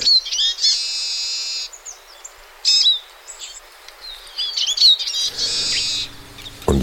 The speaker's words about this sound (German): Und wenn sie dann jetzt singen im Monat Mai, dann ist das ganz zwitschernd, knirschend und äh, schnarrend.